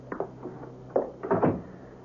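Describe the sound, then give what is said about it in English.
An apartment door swings shut, with a few soft thumps and rattles before a firmer closing clunk and latch sound; no one speaks. “Come on in, Clark, and close the door.”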